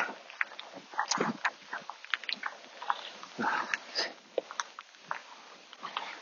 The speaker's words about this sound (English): The rain is coming down quite heavily. Might be able to hear it pitter pattering on my jacket.